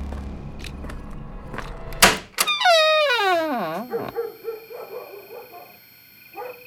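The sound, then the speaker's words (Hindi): A couple of sharp thumps, knocks on a door at two o'clock at night, followed by a long, loud, high-pitched creak that slides downward as the door is opened, then a quieter low rumble. “फिर अचानक रात के दो बजे दरवाजे पर हुई दस्तक से मैं चौंक गया क्योंकि आज तक कभी ऐसा नहीं हुआ था मैंने फुर्ती से जाकर दरवाजा खोल दिया”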